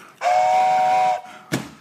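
A breathy toy train whistle sounds once, loud, holding a steady airy tone for about a second, followed by a short sharp puff of air.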